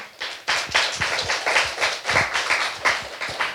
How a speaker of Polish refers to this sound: No i oczywiście dziękuję Ci bardzo za rozmowę i wielkie oklaski i wielkie powodzenia.